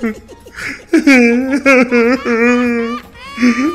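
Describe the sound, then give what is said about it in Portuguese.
A voice imitates a man crying: a few short, broken whimpers, then a long, wavering, drawn-out wail, loud, ending with a brief rising whine. “Ele ficou não, chorando. Aquele”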